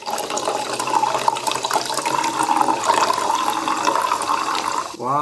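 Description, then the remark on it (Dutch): Water pours steadily into a wine glass, a continuous bright splashing stream for several seconds, ending with a brief rising, ringing tone from the glass. “Eh, we hebben hier in dit geval een heel aangenaam wijnglas. het mag klinken,”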